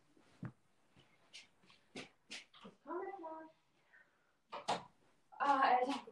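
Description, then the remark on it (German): A door is pushed shut indoors, with a couple of sharp knocks and a thud amid brief rustling handling noises and short bursts of muffled voices. “Okay, meine Eltern sind da, ich mache schon die Tür zu.”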